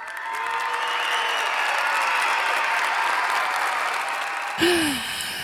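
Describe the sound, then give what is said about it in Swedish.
A crowd bursts into steady, sustained applause with scattered cheers and whistles mixed in, holding a loud, even roar for several seconds before cutting off abruptly. “Det är nästan att litet jubel tycker jag vi borde förtjäna.”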